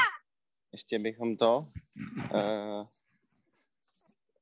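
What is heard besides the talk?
dog barking or howling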